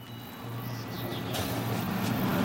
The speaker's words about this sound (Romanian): Vedeți acolo? Da, e un camion.